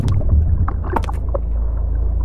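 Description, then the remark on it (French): A fishing boat engine drones overhead as a deep, steady, muffled rumble while fishermen cast their fishing net, with a few brief knocks and splashy bursts near the middle. No one speaks. “un bruit de moteur au-dessus de nous. Pétard Des pêcheurs Manquait plus que ça Ils jettent leur filet de pêche.”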